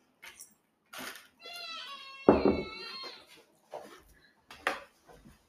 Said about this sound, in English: Sorry, that's just a cat.